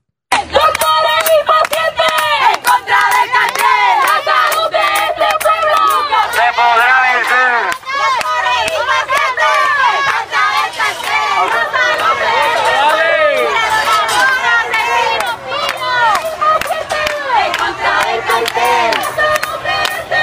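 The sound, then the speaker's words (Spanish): A loud, dense crowd of many voices shouting and overlapping, with constant agitated commotion and no pauses throughout, as police remove demonstrators from a protest in front of the Caribe Hilton Hotel in Puerto Rico. “Esta manifestación acabó, de hecho, como el Rosario de la Aurora, cuando agentes de la policía tuvieron que intervenir y vamos a escuchar ese momento cuando precisamente intervino la policía para sacar a los manifestantes.”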